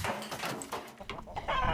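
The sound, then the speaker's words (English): A flock of chickens in a chicken coop clucking and squawking in agitated, overlapping bursts as a tractor crashes into the coop, fairly loud, with a brief dip before the commotion picks up again. “Then the tractor crashed into the chicken coop.”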